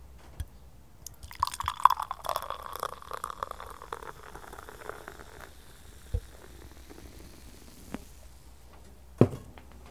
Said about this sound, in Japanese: 一番絞り。これ注げないな缶のまま飲もうと思ったけど、ちょっとワイングラスに注いじゃうか。音的な意味合いで。